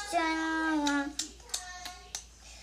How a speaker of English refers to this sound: Nice, nice, quiet, slapping music